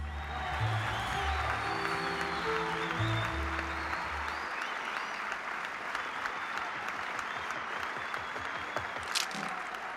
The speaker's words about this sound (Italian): Ehm, bene, un grandissimo applauso